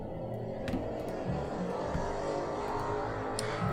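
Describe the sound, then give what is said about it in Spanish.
A steady, fairly loud roar of motorcycle engines and street traffic on División del Norte, by a motorcycle workshop, rumbles continuously with no pauses and no voices. “Pero es que las motos.”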